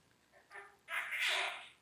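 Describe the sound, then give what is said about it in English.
A baby panda, born a couple of weeks ago, gives two nasal, honking cries, a short one followed by a longer, strained one, heard alone against a quiet background. “Is that the honking? That's baby panda.”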